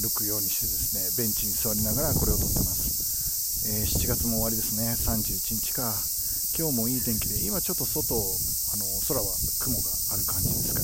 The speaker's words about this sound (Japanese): 昼間ちょっと暑かったんですけど、今は涼しいですね。えっと、風も気持ちよくて、えっと、まあ、セミの声の割には、まあ、涼しい感じを僕は受けています。